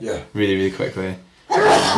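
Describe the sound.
A man talks briefly, then a sudden, loud, breathy sneeze bursts out at the very end.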